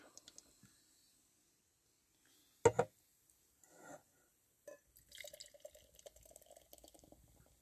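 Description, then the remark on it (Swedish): A 44-centilitre can of beer from Germany, not stored cold, cracks open with a sharp hiss, followed by a pause and then beer glugging and fizzing as it is poured into a glass, fairly quiet. “Vi ser hur den här låter.”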